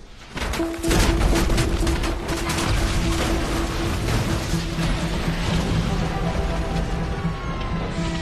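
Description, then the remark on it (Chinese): Birds strike the engines of an airliner carrying 155 passengers and crew near Manhattan, New York, and the Hudson River, instantly cutting its power: a rapid flurry of hard thuds and bangs bursts over a loud, steady jet roar with a thin whining tone, then the roar grinds on unevenly. “突遇飞鸟撞击，飞机动力瞬间消失，一百五十五名乘客和机组成员该何去何从？”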